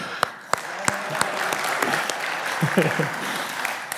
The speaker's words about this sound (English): I feel like we should give him a round of applause.